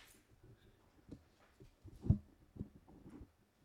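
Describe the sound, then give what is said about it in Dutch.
A microphone being pushed down to sit closer to a speaker's mouth: muffled handling thumps and rubbing, with a few irregular low bumps, the loudest in the middle, and no one speaking. “hij zet zijn microfoon recht”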